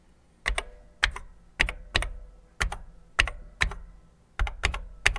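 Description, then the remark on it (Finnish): Computer keyboard typing, sharp plasticky key clicks arriving in quick pairs and small bursts with brief pauses between, steady and fairly loud with no voices. “Olisi kiva saada mun, tietokoneen naputusta.”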